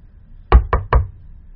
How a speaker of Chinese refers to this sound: 过了没一会儿，便传来敲门声。